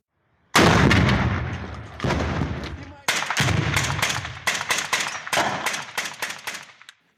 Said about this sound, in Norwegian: Den siste tiden har det stadig vekk vært skyting i Øst-Ukraina. Våpenhvilen fra 2015 blir ofte brutt.